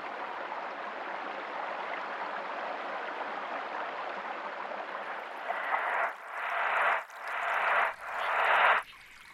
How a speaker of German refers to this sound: Am Ende hört sie nur noch das Plätschern des Flüsschens und stellt sich vor, wie es lauter und lauter wird.